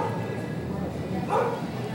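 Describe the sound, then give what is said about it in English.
A dog barks in a short burst partway through, over a steady noisy background with some talking underneath. “Yeah, there's going to be dogs in the podcast and bikes and shit.”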